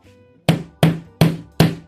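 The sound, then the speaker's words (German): A room door, lifted off its hinges, is shoved and forced shut with four loud, hollow thuds in quick, steady succession, each ringing out briefly before the next. No one speaks. “jetzt hat er versucht, irgendwie ganz, ganz leise die Tür zuzumachen, also hat er sie irgendwie kaputt gemacht.”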